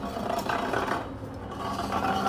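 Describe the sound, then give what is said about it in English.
A chair is pulled up at Big Bear, dragged for about two seconds, a continuous rough scraping and rubbing with a wooden rasp, steady in loudness with a slight dip midway. No one speaks. “Hang on, let me get a chair.”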